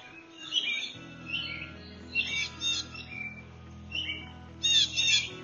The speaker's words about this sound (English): And the birds that fly by, reminding you on this earth that you're not alone.